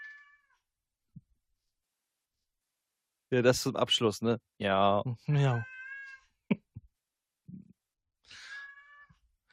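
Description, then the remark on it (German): A 16-year-old male cat meows several times with drawn-out, wavering cries of rising and falling pitch, while a couple of people speak briefly in between and afterward. “Man hört die Katze aber richtig gut.”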